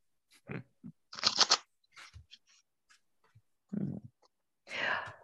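Tarot cards being shuffled: a series of short, irregular papery riffles and soft crunching bursts, with brief pauses between them, fairly quiet overall.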